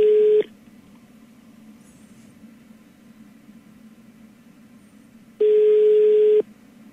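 A phone line ringback tone while calling a reporter: one burst cut off at the start, then a second one-second ring after a long pause, with faint line hiss between and no one answering.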